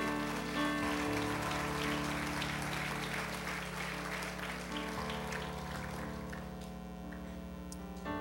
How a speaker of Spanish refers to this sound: Alguien aplauda si está de acuerdo. Amén.